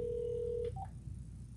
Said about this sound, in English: Yo, this is it's just ringing. There's no answering machine.